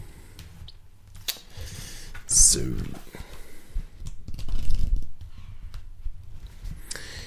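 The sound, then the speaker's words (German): Rustling of the pages of Brian Kaplan's book Die Kunst der Vollaufnahme being leafed through to chapter 11, page 116, a series of papery swishes and soft flicks over several seconds, with a single brief spoken word. “Und da blättern wir heute mal.”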